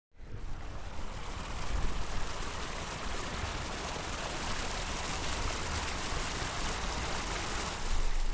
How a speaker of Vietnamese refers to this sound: Ở một bên đường có một dòng suối nhân tạo. Đi dọc theo con suối nhỏ này là sẽ đến khu vực chợ đêm Pamtukebi.